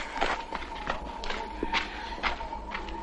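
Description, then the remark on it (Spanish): Quick running footsteps of a short-haired teenage girl arriving, a series of fairly sharp, slightly irregular thuds at a brisk pace, over a low steady background hum with no talking. “Una joven adolescente de pelo corto llega corriendo.”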